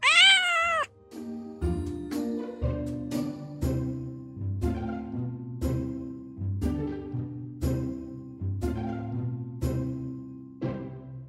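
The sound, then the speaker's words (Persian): A single loud, drawn-out cat meow opens the sound, then gives way to steady rhythmic music with evenly spaced notes for the rest of the time. No one speaks. “آدم کل زندگیشو میذاره بر اساس حرفای یه گربه”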